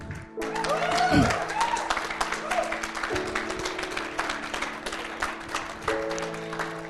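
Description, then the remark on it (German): A church audience breaks into sustained applause for a person who has raised a hand to start a relationship with God, many hands clapping densely and steadily for several seconds, with held musical tones and a few voices underneath. “Hey, lass uns der Person einen Applaus geben.”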